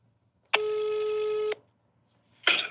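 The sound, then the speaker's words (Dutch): A phone call being placed to the partner firm Annemone Horstrup: a telephone ringing tone sounds once, a steady, buzzy tone lasting about a second, followed after a pause by a short burst of noisy static like the line connecting. “Even bellen met.”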